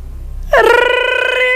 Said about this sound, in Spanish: Bueno, pero alguien que levante el tubo, ya. ¿Hasta qué hora va a estar sonando el teléfono?